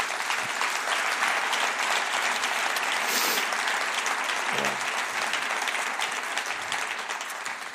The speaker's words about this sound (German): Gebt ihr mal einen herzlichen Applaus.